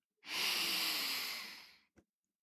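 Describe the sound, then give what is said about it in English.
A long, steady deep breath drawn in through the nose, breathy, lasting over a second before fading, followed by a tiny click-like catch. No talking. “And we're going to take a deep breath in and out.”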